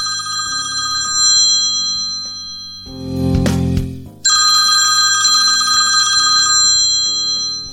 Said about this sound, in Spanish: Teléfono antiguo. Teléfono antiguo, este hace mucho ruido. Seleccionado. Teléfono antiguo.